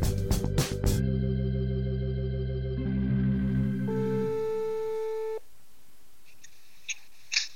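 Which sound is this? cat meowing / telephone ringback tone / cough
telephone ringback tone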